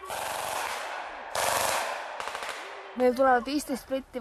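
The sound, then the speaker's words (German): Bursts of rifle fire with blank training rounds crackle in rapid, dense volleys, then sharp scattered shots, during a training exercise of Estonia's citizen militia (Kaitseliit) in the forests of eastern Estonia, before a voice starts talking over the last second. “Dann hat das Gewehr der jungen Frau eine Ladehemmung, die Übungsmunition verhakt sich im Magazin.”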